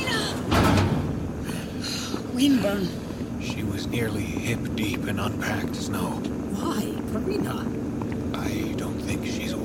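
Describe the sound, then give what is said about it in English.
A heavy bunker door slams shut with a loud, booming thud near the start, followed by a low rumbling ambience inside the freezing bunker with faint murmured voices and scattered clatter. “Mind the door.”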